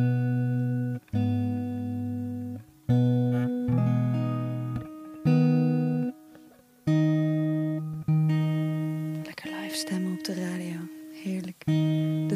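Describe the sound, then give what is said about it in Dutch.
A stringed instrument being tuned, with sustained notes plucked again and again in short bursts, pitches shifting slightly between attempts, fairly loud, with a brief murmur of voice near the end. “Ik heb gestemd, niet per se beter, maar ik ga het nu gewoon doen.”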